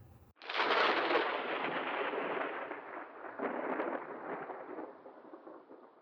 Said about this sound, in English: It's a shocking moment in which the OKC faithful's collective jaw drops to the hardwood, inciting some decidedly sad crackles of weakening thunder.